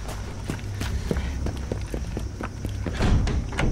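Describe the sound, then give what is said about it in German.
Hurried running footsteps of a police officer fleeing into the station thud in a quick, steady rhythm, about a dozen sharp impacts over a low rumbling background, growing slightly heavier toward the end. “Er spürte den Schmerz im Arm, konnte sich dann aber befreien und in die Station flüchten.”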